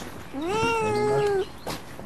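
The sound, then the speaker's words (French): A single drawn-out cat meow, fairly loud, lasting about a second with a slightly rising then falling pitch, followed by faint rustling, in a greenhouse in Béthune, France. “Bonjour les chats”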